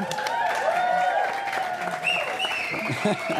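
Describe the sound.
An audience claps steadily for a few seconds for an assistant bringing a golden envelope, a dense wash of applause with some voices and a sustained tonal sound running underneath.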